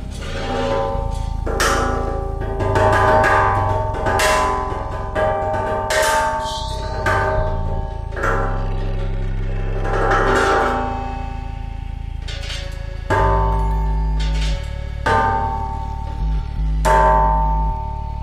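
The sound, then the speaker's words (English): An ancient drum struck again and again at an unhurried pace during a recording session, each hit blooming into a ringing, bell-like metallic resonance over a deep low hum. Fairly loud, with no talking. “from that session, we extracted 51 sounds or stems”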